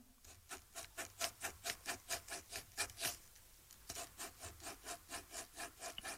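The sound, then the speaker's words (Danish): A pen scratches rhythmically across paper, drawing the rhythm of a children's song, in quick regular strokes about three per second with a brief pause midway, each stroke a dry raspy scrape. “Øh, peger mikrofonen ned mod det papir her, så kan man tegne, øh, så kan man tegne en sang øh, ved at rytmisk tegne en.”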